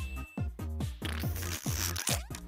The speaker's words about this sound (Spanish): Ahí está mi sonido de pedo para cerrar esta nota.